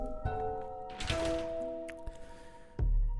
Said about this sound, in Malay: Malah pada malam-malam yang tertentu selain daripada bunyi ketukan di dinding saya juga saya juga pernah mendengar bunyi seperti ada yang sedang menyanyi.